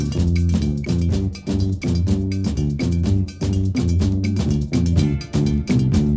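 An upbeat Afro-rock band groove plays loudly and continuously, with punchy bass and harmonic chords over driving percussion, including a bright cowbell-like clank ticking on the beat.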